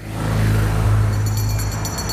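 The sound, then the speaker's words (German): A big bus engine rumbles loudly, revving with a deep, shifting drone as the freshly refueled bus pulls away on its way to the Big Apple, with some higher mechanical whine in the final second. “Und Rafa tankt uns mal wieder den Bus voll. Ist noch weit bis zum Big Apple.”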